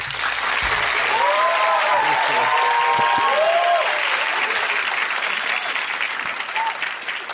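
A crowd of organized supporters claps loudly and steadily throughout for a guest on a show about communication and faith, with high whoops and cheering voices rising above the dense applause in the first half before the clapping carries on alone.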